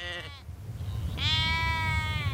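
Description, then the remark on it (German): Two sheep bleats, one cut short at the start and a longer, wavering one following after a brief pause, over a low rumbling outdoor background, in the indigenous Quechua farming community of Chiquinaui in the Andean highlands of Peru. “Sie pflanzen Kartoffeln an, halten Schafe, Kühe und Alpakas.”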